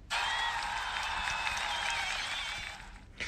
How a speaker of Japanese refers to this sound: ということでですね、えー、っと、盛大な拍手から、あの、始まったんですけれども